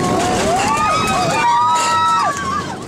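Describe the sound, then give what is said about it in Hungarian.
A passenger airplane cabin shaken by turbulence: a steady, loud roar fills the background while several passengers cry out, their voices rising and falling in alarm. “Ezen a repülőn is okozott némi ijegységet a turbulencia, mint hallják.”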